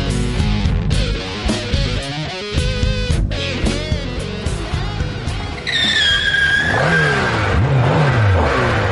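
A motorcycle engine revs loudly and continuously, its pitch climbing and falling through repeated throttle bursts, with a sharp rising whine partway through as it accelerates.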